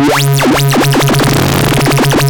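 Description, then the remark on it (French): A loud synthesizer tone whose pitch is modulated by an LFO, sweeping up and down in repeated V-shaped swoops as the LFO speed is changed, the wobble speeding up over a sustained low drone, with no voices. “Et en changeant aussi la hauteur de note, parfois ce qu'on obtient est plus inattendu.”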